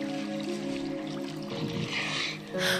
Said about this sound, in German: Nur noch ein leises Plätschern ist zu hören.